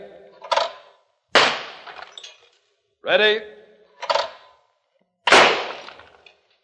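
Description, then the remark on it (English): Two loud shotgun blasts at two birds, fired from a gun loaded with two shells, about four seconds apart, each a sharp crack with a fading tail. A brief spoken word and a couple of other short, sharp noises fall between them. “Well, the rules allow me to load only two shells in this gun of mine.”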